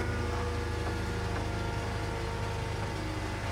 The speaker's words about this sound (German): Jetzt geht es los. Das Flugzeug wird jetzt einfach einmal gerade zurückgeschoben.